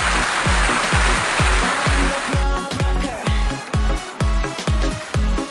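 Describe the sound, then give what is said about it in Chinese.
Dense clapping fills the first couple of seconds over a steady, thumping beat, then fades as the rhythmic music carries on alone with punchy bass hits. “小猪佩奇身上纹，掌声送给社会人。”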